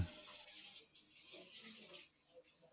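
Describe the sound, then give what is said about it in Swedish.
A tap runs steadily, a continuous bright hiss of flowing water that dips briefly near the end before resuming, with faint low murmuring in the background. “Ja, jag spolar.”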